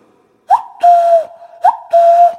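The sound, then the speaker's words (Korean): A voice imitates a cuckoo call twice as an insert in a wedding song on a radio show: two-note whistled "cuck-oo" phrases, each a short rising chirp followed by a longer held tone, loud, with no other sounds. “그때 여기서 뻐꾸기 소리를 넣어주시면 돼요.”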